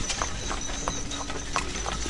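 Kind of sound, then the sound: animal, horse-drawn carriage hooves clip-clopping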